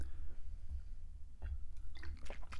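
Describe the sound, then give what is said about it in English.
Someone takes a swig of black cherry Propel fitness water from a bottle: a brief click, then a few soft, wet gulping and swallowing sounds over a low background rumble. “But anyway, swig of black cherry Propel fitness water for the working man.”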